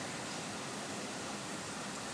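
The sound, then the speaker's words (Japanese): Steady, even rainfall makes a dense hiss with no distinct drops or pauses. It holds at a soft, constant level, and no one speaks. “すごいですね雨の音の効果というのを、えー、まとめて考えるとですねちょっとした仕事の合間に聞くだけでも効果があると”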